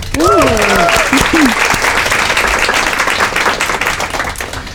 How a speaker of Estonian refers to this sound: teeme talle suure aplausi.